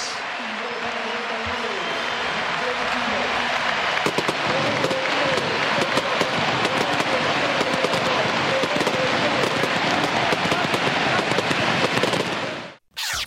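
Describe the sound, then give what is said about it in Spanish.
A stadium crowd at Newell's home ground gives a loud, sustained farewell ovation for Maximiliano 'la Fiera' Rodríguez: a dense wall of cheering and clapping peppered with sharp crackling pops, holding steady for about thirteen seconds before cutting off abruptly. “Y esta va a ser la ovación para la despedida en su casa de la leyenda de Maximiliano la Fiera Rodríguez.”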